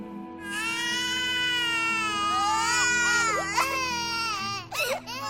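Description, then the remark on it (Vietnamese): A baby wails loudly and continuously at home at midnight, a high, strained cry held for several seconds with a few breaks and rising squeals near the end, with no talking. “Ở nhà, đứa con lớn 5 tuổi cũng tỉnh dậy vì tiếng khóc của em.”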